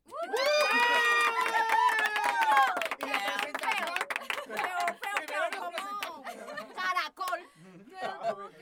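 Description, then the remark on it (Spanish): An audience at a celebration of the community organization Sin Judesco bursts into loud cheering, with high whoops and shouts at first, followed by a steady wash of dense clapping mixed with scattered voices that tapers off briefly near the end. “la idea es que todos aplaudamos este momento de celebración y aparte de eso, que todos se presenten, por favor.”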